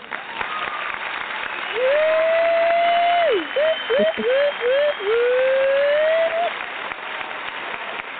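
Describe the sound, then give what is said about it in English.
An audience claps steadily for several seconds, welcoming the special guest on the radio show Make Me Feel It Radio, while a gliding, whistle-like tone swoops and chirps over the applause, then the clapping fades out. “We will give Karin a round of applause.”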